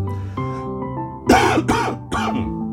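Three loud coughs in quick succession, sharp bursts over a soft sustained tonal background, with no one speaking.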